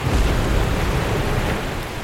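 A big ocean wave breaking as a surfer paddles out through the wave barrier: a loud, rumbling roar of crashing water with broad hissing spray, holding steady for about two seconds before easing slightly. No voices.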